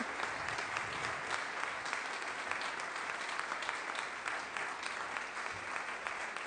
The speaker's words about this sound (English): Yeah. And you hear that? That's for you guys. All that clapping is for you guys.